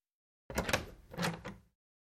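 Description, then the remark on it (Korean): A woman knocks carefully on the door of room 312: a few soft taps, about three or four spaced unevenly over a second, fairly quiet, with silence before and after. “여자는 안으로 들어가 3층 단추를 눌렀고 312호실로 향했고 여기로군 하며 신중하게 문을 두드렸고”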